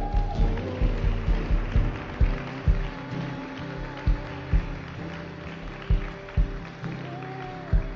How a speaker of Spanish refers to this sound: ¿Te animás a darle un aplauso?